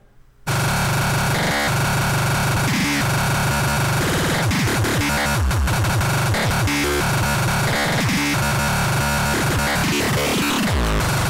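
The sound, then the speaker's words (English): A sampler plays back a dense, chaotic jumble of chopped audio samples, loud, with abrupt cuts and stuttering, layered fragments running continuously after a brief silent start. “So I'm going to play back some samples here and uh, so you can hear what a sampler sounds like.”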